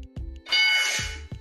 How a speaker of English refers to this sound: Can y'all hear that? Yeah, I sure. Okay, so that's when you get the question right.